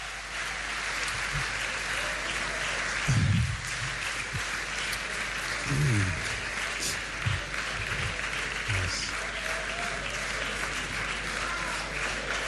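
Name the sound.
audience applause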